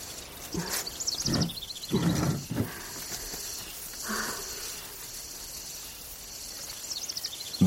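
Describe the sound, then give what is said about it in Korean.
Soft outdoor ambience heard through a small window of a temple kitchen under a clear sky: a few high, thin bird chirps over a steady cicada buzz and a gentle, breathy wash of wind, with a couple of louder rustling gusts early on. “새소리와 쓰르라미 소리와 바람 소리를 들었다.”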